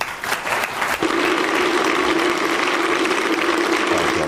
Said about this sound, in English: Well done, Huge applause. Standing ovation. They all thought it was marvellous.